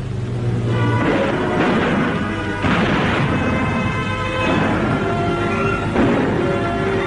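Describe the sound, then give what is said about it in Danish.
Assault guns fire several booming shots at approaching Soviet tanks at irregular intervals, loud, over a continuous rumbling, clanking background like engines and tracks, with a steady tonal layer underneath. “Gefecht zwischen Sturmgeschützen und anrollenden Sowjetpanzern.”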